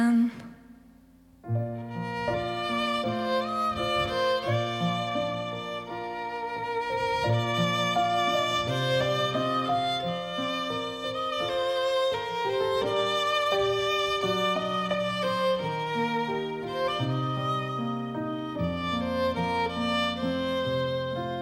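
A song plays steadily after a brief quiet opening, with rich sustained harmonies and a full, even loudness throughout, likely carrying a sung melody over instrumental accompaniment.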